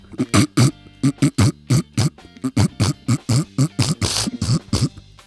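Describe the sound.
A person imitates a dog's reverse sneeze with a rapid series of loud, honking snorts and gasps, steady in rhythm, repeating about eighteen times with no speech.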